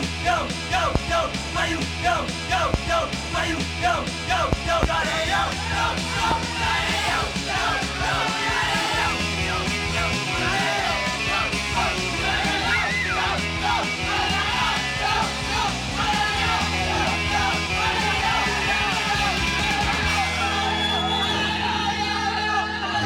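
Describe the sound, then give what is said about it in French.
A loud, driving punk song plays from a vinyl record, with shouted vocals over dense, steady guitars and drums that keep a constant level throughout. “vous voyez que tout ce que vous écoutez, c'est du vinyle, que du vinyle.”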